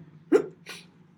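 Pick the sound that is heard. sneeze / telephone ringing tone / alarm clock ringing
sneeze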